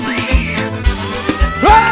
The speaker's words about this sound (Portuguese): Eita, forrozinho!